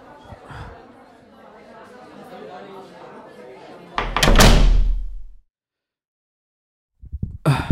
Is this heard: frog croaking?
no